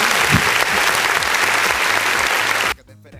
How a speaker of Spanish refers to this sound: Un aplauso al muchacho, ¿no?